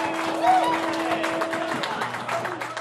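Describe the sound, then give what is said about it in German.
A crowd applauding, dense steady clapping that holds at a moderate level for about three seconds, with a faint constant hum and a brief whistle-like tone underneath. “Moment, da müssen wir noch dafür einmal. Applaus spenden.”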